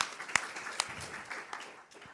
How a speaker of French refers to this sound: Donc on applaudit